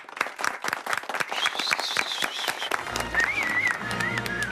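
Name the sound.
applause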